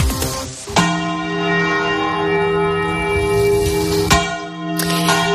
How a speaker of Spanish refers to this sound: Y mañana a las 12 del mediodía sonarán las campanas de la Catedral de la Almudena para celebrar que la UNESCO ha declarado el toque manual como patrimonio inmaterial de la humanidad.